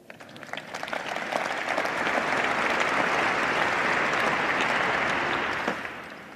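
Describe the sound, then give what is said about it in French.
An audience applauds Mistral's record fundraising steadily, a dense wash of many hands clapping that swells quickly, holds at a strong level for several seconds, then tapers off near the end. “Chapeau, bravo, vous pouvez les applaudir.”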